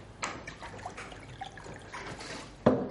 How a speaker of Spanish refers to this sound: Abre la botella y se sirve un poco de agua en el vaso.